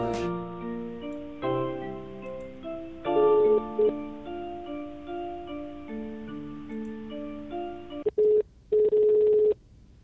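A phone number is dialed: several short electronic keypad beeps, some in quick succession and one held longer, sounding clearly over a steady, melodic background tune. No one speaks.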